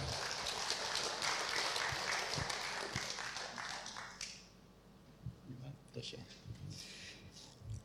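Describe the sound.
An audience at a kinship group claps steadily to welcome a man coming down to share a brief testimony, a dense crackle of many hands lasting about four seconds before cutting off, followed by quieter voices and faint background noise.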